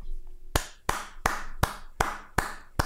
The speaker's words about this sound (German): Sie haben schöne Werbespots über äh, Toilettenpapier und da wir auch eine Sponsored-Sendung sind, haben wir hier heute auch einen Toilettenpapierspender direkt im Studio stehen. Einmal kurz Applaus bitte.